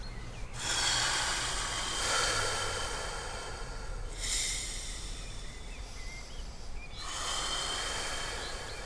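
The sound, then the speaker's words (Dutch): Slow, audible breaths, several long airy exhales in an unhurried rhythm with brief pauses between, and no talking. “Dus op het moment dat je je gestrest voelt en je gaat op uitblazen concentreren...”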